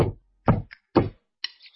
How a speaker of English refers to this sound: Knock, knock, knock. Who's that knocking at our little front door?